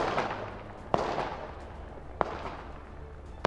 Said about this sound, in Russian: Первые выстрелы были приняты посетителями клуба за взрыв петард, спецэффекты или часть клубной музыки. Мы хотели верить в то, что это просто часть музыки, но потом люди быстро поняли, что происходит что-то ужасное.